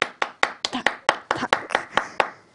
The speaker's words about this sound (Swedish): Hej allihopa! Fick jag någon applåd? Eller?